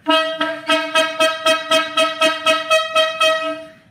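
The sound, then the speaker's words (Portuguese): A loud, brassy horn honks in a quick, steady series of about ten short blasts, evenly spaced, with no voices over it, used as the sound effect for the 'Corneta aleatória' segment. “Olha só quem está aqui, ó. A corneta aleatória.”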